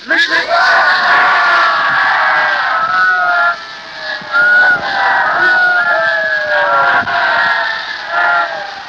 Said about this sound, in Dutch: En je hebt er ook van doen blijken door telkens en telkens weer die kreet aan te heffen die ons Nederlanders hart is gegrepen. Leven de koningin!